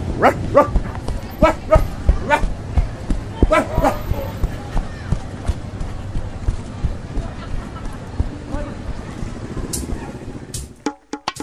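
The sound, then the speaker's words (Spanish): A dog named Nerón barks and yips repeatedly in sharp bursts as it is sent to fetch a stick, most often early on, over a busy background with voices talking; the sounds thin out and it ends abruptly. “Nerón, Nerón, vaya a buscar el palito, Nerón.”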